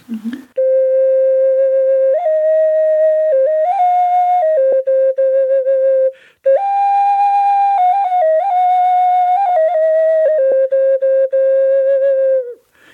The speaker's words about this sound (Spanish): Por ejemplo, tengo una ocarina que voy a tocar ahorita, es una ocarina en forma de paloma muy pequeñita que emite un sonido muy dulce.